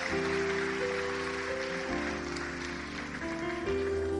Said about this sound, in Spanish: Dale el aplauso al rey. Gloria a Dios.